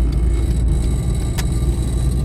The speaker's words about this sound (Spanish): Tengo otro rato para grabar aquí en el coche y digo, venga, va, vamos a grabar otro pequeño audio.